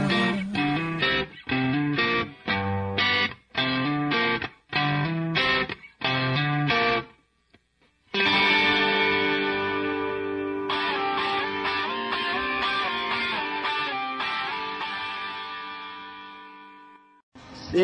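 Loud, gritty distorted electric guitar from a rock cover version plays a run of short, choppy chord stabs, then settles into long, ringing distorted chords that slowly fade. No voices are heard.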